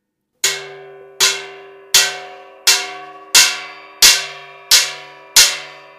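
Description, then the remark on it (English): A sledgehammer pounds the bolts and wing bolts holding a door shut, tightening them for a watertight seal, in eight loud, evenly spaced blows, each strike clanging with a bright metallic ring that fades before the next hit. No voices are heard. “The bolts and wing bolts that hold the door shut, they have to be tightened by hammering with a sledge.”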